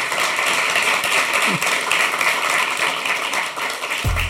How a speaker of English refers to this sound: So um, give a warm uh, applause